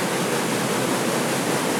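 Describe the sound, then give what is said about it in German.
Steady rushing water pours continuously through a historic water pump installation built in 1803 and still running, a dense, even hiss like a small waterfall or fast channel, fairly loud with no voices over it. “Wissen Sie, warum da diese kleinen Wasserzuläufe sind?”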